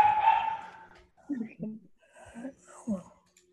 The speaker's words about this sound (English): Who's barking? Oh, my dog. Sorry. Oh, Uh, Someone's at the front door and he he goes crazy.